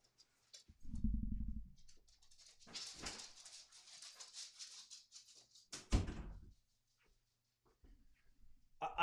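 Dogs whimpering and stirring as they are let out while a door thumps open, with rustling and shuffling movement in between and a second heavy knock; no one speaks.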